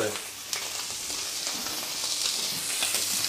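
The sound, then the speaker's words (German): Meat sears over high heat in a hot pan, with a steady, loud sizzling hiss broken by a few sharper crackles and pops, with no talking over it. “Na, das ist einfach, du musst auch die Poren kurz verschließen, deswegen genau. machst du das auch mit starker Hitzgeschwind, rechts ja.”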